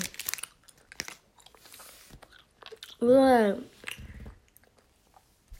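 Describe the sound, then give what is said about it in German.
Soft, irregular chewing of a jellybean, with faint wet mouth clicks spread over several seconds, interrupted by a loud drawn-out vocal groan and a short buzzy grunt. “Und wenn ich das nächste Mal eine Jellybean-Folge mache, hole ich mir Wasser dazu.”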